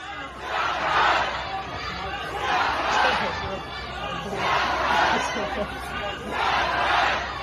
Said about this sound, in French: Et en plus, pour la première fois, les slogans ont été entendus dans la rue de Shanghai. On les écoute.